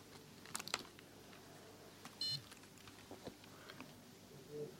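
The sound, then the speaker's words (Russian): A few soft button clicks and taps as the reset is pressed, then a single short, bright electronic beep from a braille organizer, followed by faint handling noises. “О, вот этот сигнал. Это сигнал у вибрато. Я нажал ресет.”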